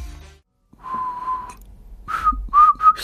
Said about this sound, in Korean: 아우 휘파람 소리가 아주 참 인트로 부분에 그쵸